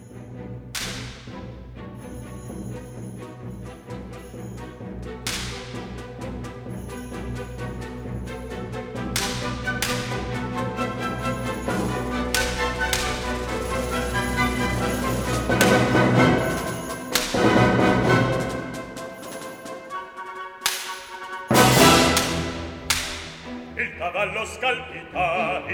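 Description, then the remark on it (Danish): A full orchestra plays a lively, driving introduction to an Italian opera aria, where a character enters the stage for the first time, with no singing yet, its sound swelling steadily and punctuated by several sharp, whip-like cracks cutting through the music. “Il Cavallo Scalpita, uh, hvor, uh, hvor Alfio kommer ind på scenen for første gang”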